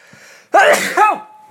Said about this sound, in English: excuse me uh, that was that was not anything to do with the story that was just me sneezing wow i must have stirred up some dust